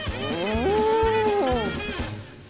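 A single long, loud cow moo, rising into a sustained tonal bellow for about a second before sliding down and fading out, with no talking over it.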